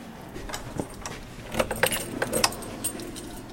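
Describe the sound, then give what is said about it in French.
A bunch of Vachette keys is taken out on a stadium stand and jingles and clinks in short, irregular bursts, loudest around the middle, with no talking over it. “je vous vois sortir les clés euh, tel Saint-Pierre, vous nous emmenez.”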